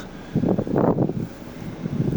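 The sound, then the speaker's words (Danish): Strong wind up at a harbour buffets the microphone in low, rumbling gusts, swelling and easing irregularly with loud bursts near the start before settling into a steadier roar. “Men det blæser virkelig meget heroppe.”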